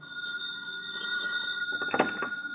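A telephone rings with a steady, continuous electronic tone at moderate volume as an FBI agent phones in to the agent in charge of the San Francisco Bureau, ending in a brief clunk like a receiver being picked up. No one speaks.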